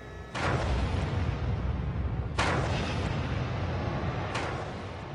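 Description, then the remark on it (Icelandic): A large explosion at the Fukushima Daiichi nuclear power plant in Japan, in the afternoon about a day after the tsunami struck, erupts suddenly into a sustained, heavy rumbling roar, punctuated by two more sharp blasts roughly two seconds apart; loud, with no voices. “Klukkan 6 mindur yfir hálf fjögur síðdeis um sólarringa eftir að flóðbylgjan skalla á kjarnorkuverinu hvað svo við mikil sprenging í Fukushima Daiichi.”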